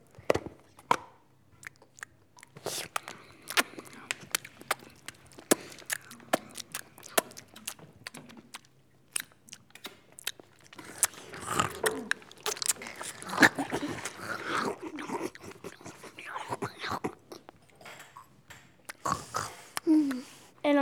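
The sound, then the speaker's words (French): Sloppy eating sounds of a woman eating her lunch with her fingers: wet smacking, chewing and crunching bites run almost nonstop, with occasional grunting, snorting vocal noises mixed in and a busier, louder stretch toward the end. “Alors elle commença à manger son repas avec les doigts.”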